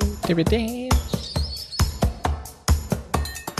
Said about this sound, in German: Also, was war das jetzt war? Irgendein Vogel.